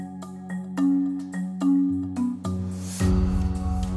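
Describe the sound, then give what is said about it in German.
A phone push notification alert for a CNBC article, received by Zhang, plays as a short electronic melody of several bright, sustained tones, ending in a sudden noisy whoosh; clear, with no voices. “Während er noch darüber nachdenkt, erhält Zhang eine Push-Benachrichtigung.”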